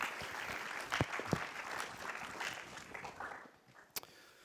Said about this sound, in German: einen herzlichen Applaus geben.